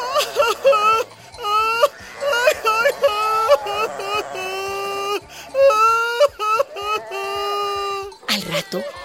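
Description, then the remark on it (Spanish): A voice wails and sobs in exaggerated, theatrical bursts, rising and falling pitched cries with short breaks between them, loud, like someone pretending to cry. “Entonces, entonces yo también me pondré a llorar.”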